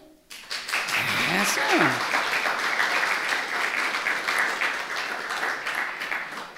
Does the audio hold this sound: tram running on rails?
no